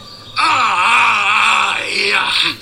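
Straining, drawn-out groans with a rough, pained edge from two shirtless men hitting each other, loud, rising and wavering over about two seconds with no words spoken.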